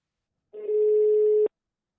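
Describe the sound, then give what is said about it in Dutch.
A single steady ringback tone from an outgoing phone call to a former colleague, one flat hum lasting about a second, clear, with silence around it and no voices. “Ik ga hem nu bellen.”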